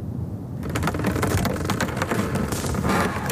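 Loud sea ice cracking and grinding as sun-warmed ice breaks apart, cracks opening and filling with water: after a quiet half-second, a dense, continuous stream of sharp crackles and snaps over a deep, rumbling groan, unbroken.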